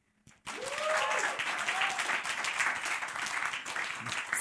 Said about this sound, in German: Ähm, lasst uns doch nochmal so einen richtig coolen Applaus auch noch für die Leute im Stream zu Hause geben oder für die, die im Podcast gehen, so einen richtig großen, fetten Applaus für den Herrn und für die Leute am Stream.